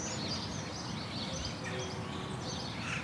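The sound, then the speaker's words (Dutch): Birds chirping in a wooded area by the villa village of Aerdenhout in the Netherlands, scattered tweets and calls drifting over a steady, hissy outdoor background, moderately quiet, with no one talking. “Als het geluid van de auto's wegsterft, dan hoor je de vogels kwetteren.”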